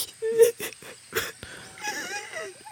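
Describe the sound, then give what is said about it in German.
Soft whimpering and crying in a series of short, breathy sobbing bursts, trailing into a thin, wavering whine toward the end. “Nein, nein, nein, …, nicht weinen.”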